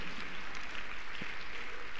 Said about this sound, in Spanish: A dar un aplauso grande, Señor, amén.